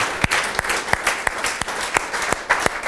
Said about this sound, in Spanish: Si tú crees que Cristo resucitó, dale un aplauso fuerte a Jesús.